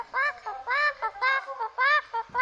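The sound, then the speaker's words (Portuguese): A voice imitates a parrot's squawky "curupá" call, repeating it about four times in a quick, rhythmic pattern. Each call is loud and nasal, with no other talk. “Assim que avista um caminhante na estrada, começa logo a cantar: Curupá, curupá.”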